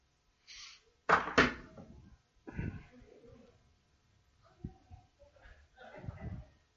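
A door is pushed shut with a loud double knock of wood and latch, followed by quieter shuffling and soft movement sounds.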